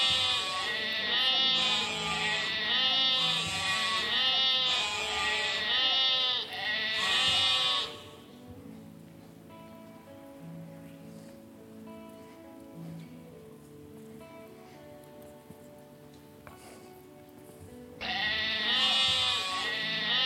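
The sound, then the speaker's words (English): Sheep bleat loudly and repeatedly in an overlapping series of wavering cries, then fall quiet to a soft background before another loud bleat returns at the end. “As shepherds kept watch on a small nearby hill, their sheep were all silent and sleepy and still.”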